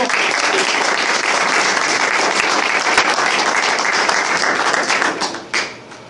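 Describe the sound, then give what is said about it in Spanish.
Sustained audience applause for the committee at a business event, a dense wash of many hands clapping at steady loudness for several seconds before tapering off near the end. “Entonces, bueno, vamos a dar un, aplauso por, favor al comité, ¿verdad?”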